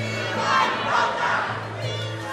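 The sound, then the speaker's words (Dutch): A large crowd of supporters, brought by bus by Bouterse's party, welcomes Bouterse at the airport in Suriname, cheering and shouting together in a continuous, swelling roar, loud, with no single voice standing out. “Bij de luchthaven wachtte Boutersen een warm onthaal.”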